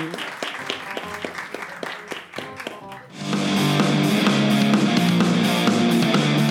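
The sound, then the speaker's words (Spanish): Brisk applause from a small group for a guest at the end of the show La paja nocturna, dense overlapping claps for about three seconds, then cut off as loud music takes over. “un aplauso”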